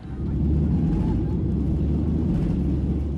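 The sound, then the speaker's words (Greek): A loud, steady, low rumbling roar of an American Airlines airplane engine just after takeoff, as fire breaks out in the engine, dense and continuous for a few seconds with no distinct breaks. “Φωτιά ξεσπάει στον κινητήρα αεροπλάνου της American Airlines που μόλις έχει απογειωθεί από το Γάιο.”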